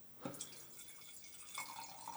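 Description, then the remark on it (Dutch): Wine trickles and splashes softly into a glass from a screw-cap bottle, starting with a brief splash and then a steady pour with a faintly ringing tone as it fills. Quiet, with no voices. “maar hopelijk zal het inschenken hetzelfde geluid zijn.”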